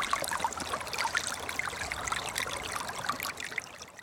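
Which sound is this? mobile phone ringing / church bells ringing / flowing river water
flowing river water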